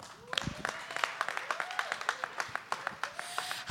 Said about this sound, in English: So, coming up next for acceptably sweaty, give a round of applause for